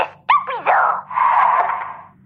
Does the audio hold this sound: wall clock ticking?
no